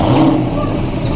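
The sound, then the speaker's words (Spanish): A Porsche Panamera GTS sports car engine rumbles loudly, a deep, throaty, continuous growl held steady over a brief moment. “Empezábamos con ese Porsche Panamera GTS”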